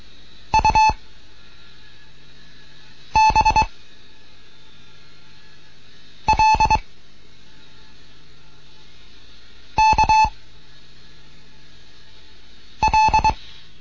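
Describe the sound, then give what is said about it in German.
Morse code tones from a radio Morse lesson for beginners broadcast from Bremen sound in five short, evenly spaced bursts of a mid-pitched beep, each a quick cluster of pulses, with a steady hiss in between and no talking. “Hier ist DGOT 1 Kilo November in Bremen mit einem Morseunterricht für Anfänger es kommen jetzt U Übung mit P.”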